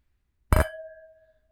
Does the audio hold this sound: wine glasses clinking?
yes